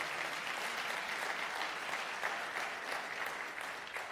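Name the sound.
audience clapping hands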